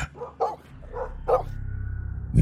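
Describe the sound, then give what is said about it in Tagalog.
Four dogs bark in short, irregular bursts in front of a bedroom door after hearing scratching inside the room, about four sharp yaps close together over a steady low rumbling hum, with no one speaking. “bumungad sa akin yung apat na aso sa tapat ng kwarto ni Papang. Nagsimula silang magsitahulan”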